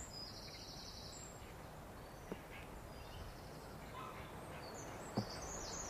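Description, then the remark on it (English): Faint birdsong at dawn, as light returns to the sky, drifts through a quiet outdoor hiss, with a few high warbling phrases at the start and again near the end, plus a couple of soft clicks. “When the light starts to come back into the sky, the bird song starts.”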